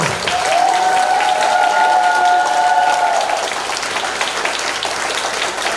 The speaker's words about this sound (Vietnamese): người có thể cho chàng pháo tay to hơn nữa được không